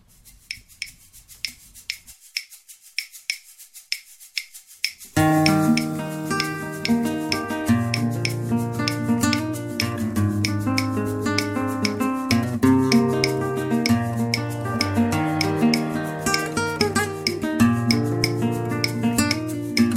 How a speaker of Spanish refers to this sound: Vamos a escuchar la sintonía, esa que tenemos tan bonita.